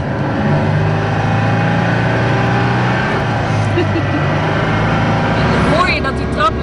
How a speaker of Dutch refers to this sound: Herkent u deze auto? Het is een model uit de vroege jaren 70. Hoor hem starten. Twee cilinder, luchtgekoeld, lijkt een beetje op een uh, De Chevaux, maar net ietsje zachter en vol automatisch. Hou je vast.